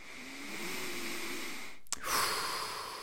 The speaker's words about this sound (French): Voilà, on inspire, on expire profondément.